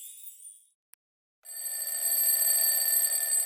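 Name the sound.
alarm clock ringing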